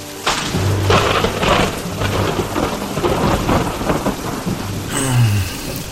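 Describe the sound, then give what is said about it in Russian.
A thunderstorm rages: steady heavy rain hisses throughout while deep thunder rumbles roll in and out, with a sharper crack near the end. No voices are heard. “гроза.”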